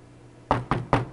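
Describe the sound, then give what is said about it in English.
Three firm knocks on an apartment door, evenly spaced, each a sharp hollow thud, with no voices in between. “Tomorrow, knock on the door.”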